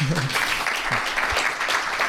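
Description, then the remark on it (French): Sustained audience applause after the audience prize is announced at an awards event, a dense wash of clapping at steady loudness for about two seconds, with a brief low voice or cheer near the start. “parce que quand même, vous pouvez applaudir quand parce que c'est énorme.”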